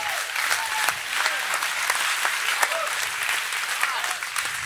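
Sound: audience clapping and shouting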